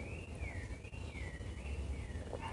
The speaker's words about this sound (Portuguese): Tá tão cedinho, né? Acho que dá pra ouvir os passarinhos.